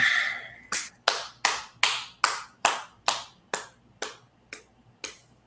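A person claps their hands about a dozen times in a steady, even rhythm to cue the next slide, each clap crisp, gradually growing a little softer toward the end, with no talking.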